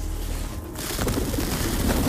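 Pigeons coo in low, murmuring tones against a steady background hum, the soft burbling calls running continuously and growing slightly fuller toward the end, with no one speaking.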